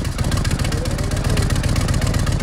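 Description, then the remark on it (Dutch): A motorcycle exhaust, in its closed mode, idles with a steady, deep rumble and rapid, even pulsing, loud and continuous throughout with no one speaking. “Dus dit is de uitlaat zoals die normaal zou moeten klinken.”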